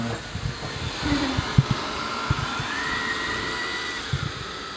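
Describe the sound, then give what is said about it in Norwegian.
A robot vacuum cleaner runs steadily at home, a continuous motor whir with a faint high whine and occasional soft bumps and knocks as it moves around. No one speaks. “En støvsuger som driver og kjører rundt der.”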